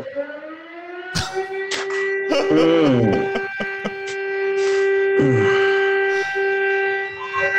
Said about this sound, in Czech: Jo, u vás, a... u vás to ještě tam křičí zkouška siren, zkouška siren, že?